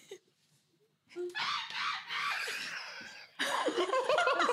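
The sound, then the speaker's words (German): Someone does a loud monkey impression: shrill, chattering hoots and screeches in two long bursts after a brief pause, with laughter-like squeals mixed in. “Du kannst Stimmt, einen Affen machen?”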